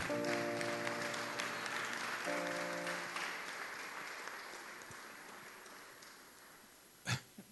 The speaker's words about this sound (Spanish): ¿Cuántos pueden dar un aplauso fuerte al Señor?